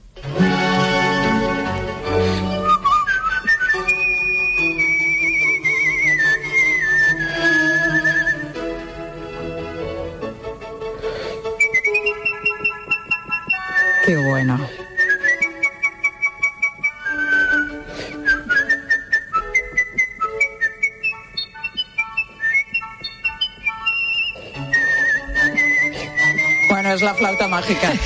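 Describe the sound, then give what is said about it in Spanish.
A long, agile whistled melody of a Mozart opera aria, in operatic style, with fast runs, trills and sustained high notes, clear with no talking. “es que me sorprende porque es como si estuviésemos en la ópera, ahora mismo escuchando a una soprano pero con tu silbido, ¿no?”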